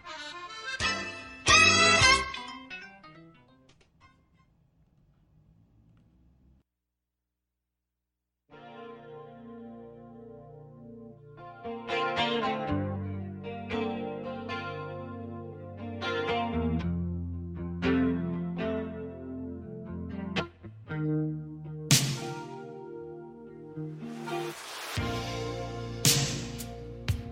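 A pop song plays: a bright, effect-drenched guitar opening fades to near silence, then the full band swells back in with layered, chorus-washed chords and steady beats, loud and close, with no singing yet.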